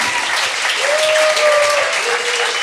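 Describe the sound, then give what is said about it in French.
Sustained applause from a sizable audience at a live show, clapping for two performers, dense and steady clapping filling the whole stretch, fairly loud, with a faint tonal whistle or voice drifting through the middle. “Là, euh, si vous êtes euh, du Québec, j'aimerais ça qu'on les applaudisse.”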